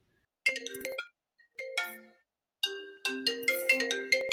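An outgoing phone call rings out with a melodic electronic tone, three bright bursts of chiming notes separated by short pauses, clear, with no one talking.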